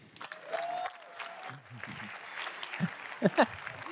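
A crowd applauds steadily for a few seconds, a dense wash of clapping with a whistle and scattered cheers and voices mixed in, a couple of louder shouts near the end.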